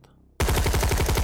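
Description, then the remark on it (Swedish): After a brief quiet moment, a loud burst of rapid automatic gunfire erupts as the soldier Katja opens fire early on a group, and keeps hammering in a fast, steady, dense rhythm. “Men som den soldat hon är så hör du innan du riktigt kommer fram till det där skottlägret hur automatelden bryter ut emot den här gruppen”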